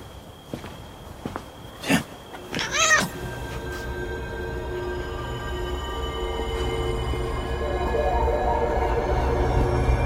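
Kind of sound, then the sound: animal, cat meowing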